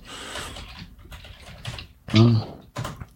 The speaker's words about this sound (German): Mein Gott, das tippt echt ein bisschen.